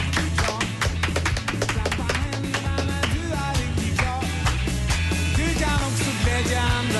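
A lively Swedish children's singalong song by children's entertainers plays with a steady bouncy beat, sharp rhythmic claps or taps and layered voices over a full, loud band arrangement throughout.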